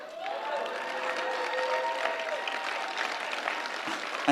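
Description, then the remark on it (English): A church audience claps steadily for several seconds as a woman walks down the aisle, a dense, even patter of many hands with some faint cheering and whoops rising over it, no speech on top. “And uh, can I just ask you to give my wife a round of applause as she walks down the aisle?”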